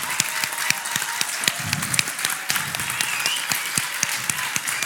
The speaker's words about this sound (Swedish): Vi ska ge Gud all ära med applåder. Vi applåderar Herren.